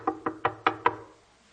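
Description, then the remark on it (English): Five quick, evenly spaced knocks on a wooden door, fairly loud, each one sharp with a short hollow ring; no voices. “I stand at the door and.”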